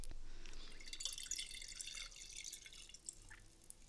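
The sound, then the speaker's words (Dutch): A drink is poured to refill an empty glass, a steady, quiet trickle of liquid running for several seconds, with no voices. “Ik zou zeggen, ehm, mijn glas is leeg. Ik schenk hem nog even bij.”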